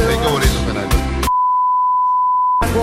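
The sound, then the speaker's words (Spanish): A steady, high-pitched censorship bleep on a live Univision broadcast cuts in abruptly over a profanity, holding one flat tone for over a second between stretches of busy music and voices. “No, no, tú estás, Eso fue sensor live.”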